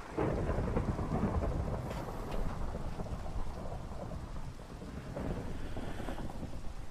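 Steady, heavy rain pours down while deep thunder rumbles continuously beneath it, a dense, enveloping storm with no voices, holding at an even, fairly loud level throughout.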